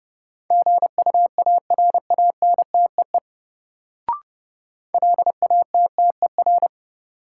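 Morse code tones at a fast 30 words per minute, sending practice sentences from a drill of the top 1600 words: a steady mid-pitched beep keyed into quick dots and dashes, in two bursts separated by a pause with a brief click.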